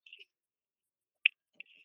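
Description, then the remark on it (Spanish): Faint, brief scratching and rubbing bursts from headphones being handled, with one sharper click near the middle and a short rasp toward the end, over near silence with no talking. “Oye, ¿alguien está de fondo rascando algo?”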